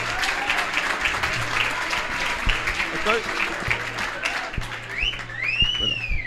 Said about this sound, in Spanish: Fuerte el aplauso para el maestro